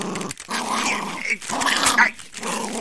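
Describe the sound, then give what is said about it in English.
A dog growls in three sustained, rough rumbling bursts separated by brief pauses, fairly loud and gravelly with a snarling edge, while someone tries to take a paper of sermon notes from it, with no talking over it. “You Alpo snarfing rat faced critter! Give me that paper!”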